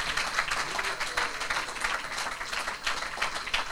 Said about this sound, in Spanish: Dale una aplauso al Señor.